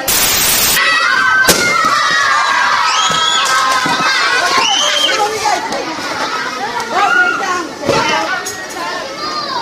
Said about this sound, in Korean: 예, 지금 아이들이 지금 풍선 터뜨리기 어, 게임을 하고 있습니다. 아이들 도 그 풍선 터뜨리기 게임을 아주 좋아하죠. 어, 지금 다들 남녀 편 갈라가지고 어, 풍선을 다리에 끼고 다니는, 다니다가 반환점을 돌고서 풍선을 터뜨리는 게임을 하고 있고